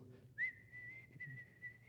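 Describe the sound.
A single long whistle mimicking a wood duck's call, heard at first light on a cold morning during a duck hunt with decoys, sliding up sharply at the start and then holding a steady, thin tone over a faint low background rumble.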